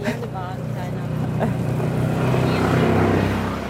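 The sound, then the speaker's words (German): A motor vehicle approaches and passes close by, its low engine rumble and road noise swelling steadily louder toward the end, with a voice briefly audible at the start. “Also, oh, Achtung, Auto. Oder äh, weiß nicht, ob das ein Auto ist.”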